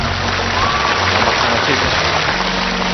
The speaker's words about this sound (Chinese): 你看哪边掌声多，哪边就是你皇阿玛，好吗？